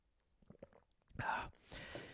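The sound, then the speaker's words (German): A quiet sip from a drink: a few soft mouth clicks, then a brief gulping swallow, followed by a breathy exhale. No one speaks. “Ich trinke noch einen Schluck.”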